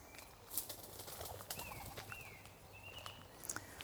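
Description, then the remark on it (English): Wood pigeons clatter out of a tree in a few sharp wing-flapping bursts, with thin bird whistles and chirps in the quiet outdoor background. “Wood pigeons just jumped out of the tree over there.”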